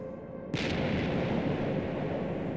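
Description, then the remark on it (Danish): Bombs falling from Soviet bomber planes over Bornholm explode, bursting in after a brief lull, followed by a heavy, sustained low rumble of blasts and debris that stays loud and continuous without any voices. “Bornholmerne kryber i skjul for de faldende bomber.”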